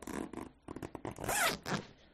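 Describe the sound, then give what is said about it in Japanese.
A side zipper on a bag is pulled open all the way, a continuous ratcheting rasp in several quick bursts that swells louder toward the end, with no talking. “横からジッパーとかでビローンと開けたら、サイドがジッパーで全開すれば奥のものも取れるじゃないこれもね、横にファスナーがあるの。今開けるわよ。”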